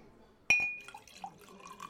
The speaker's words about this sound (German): Willst du mir auch nochmal einschenken, please? ASMR.